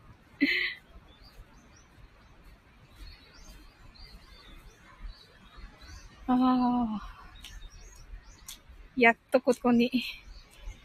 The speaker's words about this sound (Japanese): ちょっとずいぶん海から離れてみました。小鳥の声が聞こえるけどどうですか